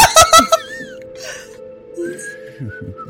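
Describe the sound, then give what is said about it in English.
A person whistles a casual, wandering tune in thin, sustained notes with short gaps, preceded by a few brief voiced bursts and soft background noise. “I'm nonchalantly whistling.”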